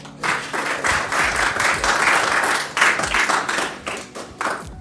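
Steady audience applause, a dense wash of many hands clapping continuously for several seconds at a fairly loud level, with no voices over it.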